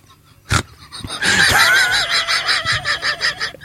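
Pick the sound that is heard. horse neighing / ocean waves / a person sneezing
horse neighing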